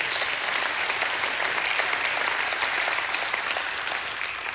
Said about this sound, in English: Give the Lord God a hand clap of praise.